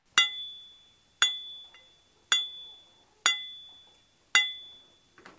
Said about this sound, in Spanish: toma un pequeño martillito y empieza a pegarle a la tubería. Empieza a pegarle a la tubería y esa tubería este, tiene un cierto sonido. De pronto hay una curva en el tubo, una curvatura, y ahí sigue y suena distinto.